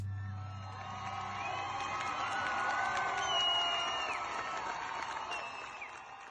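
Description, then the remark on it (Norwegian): A large crowd of Iranian women cheering and shouting together as they throw their hijabs onto a bonfire in protest over what happened to Masa Amini, a dense sustained roar with high-pitched whoops and ululating cries rising above it, swelling in the middle before easing slightly. “Dette er lyden av iranske kvinner som kaster hijaben på bålet i protest mot det som skjedde med Masa Amini.”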